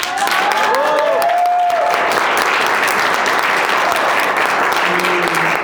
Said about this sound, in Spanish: Así que denles un fuerte aplauso a ellos.